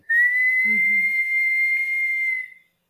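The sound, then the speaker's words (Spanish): A person whistles one long, steady, high note through lips shaped into an O, held for about two and a half seconds, fairly loud, with a brief low murmur partway through. “Entonces voy a hacer la boca una O y chiflo.”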